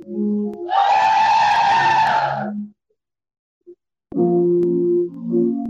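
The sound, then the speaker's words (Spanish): A church audience lets out a loud, joyful shout together when the preacher asks for a shout of joy, a dense burst of many voices lasting about two seconds, then a brief silence before steady tones return. “Alguien me da un buen grito de júbilo acá.”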